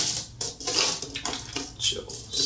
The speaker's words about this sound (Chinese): 所以如果你是透过 Podcast 来收听这一支啊节目的话呢，你可以听到完整的数钱的声音，数钱的 SMR，Yeah，五六七八。